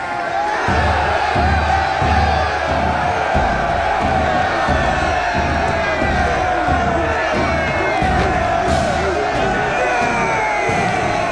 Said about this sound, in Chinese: 霎时间，囚犯们欢呼喝彩，拥簇着拳王贝里克，恭迎一代王八拳掌门诞生。